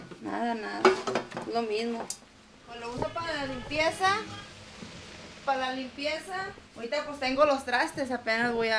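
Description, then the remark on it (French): Dishes and pots clink and clatter in a kitchen as a woman washes the dishes with clean water she has just received, sharp irregular knocks of crockery and metal running under a person talking almost continuously. “Là, j'ai la vaisselle à faire, donc je vais la laver avec l'eau propre que je viens de recevoir.”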